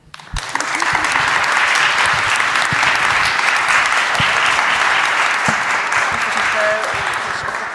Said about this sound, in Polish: Oklaski się należą podwójne.